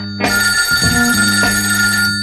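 A telephone rings with a bright, sustained electronic bell tone, loud, holding steady for about two seconds with no voices present, for a call-in segment on a live So Radio broadcast.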